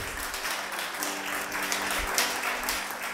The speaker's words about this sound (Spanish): Póngase de pie y dele gracias a Dios. Dele un aplauso al Señor para que esté más relajado.